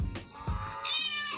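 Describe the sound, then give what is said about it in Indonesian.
A single short, wavering goat bleat rings out fairly loud near the end, preceded by a couple of soft low thumps, with no talking. “coba kambing bunyi kambing”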